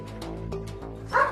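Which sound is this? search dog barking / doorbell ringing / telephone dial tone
search dog barking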